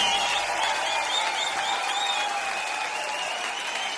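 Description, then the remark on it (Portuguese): Steady, sustained applause from a sizable audience for a performer, Gustavo, after a song, a dense wash of clapping that holds at an even level throughout without any voices standing out. “Fuerte el aplauso para Gustavo, por favor.”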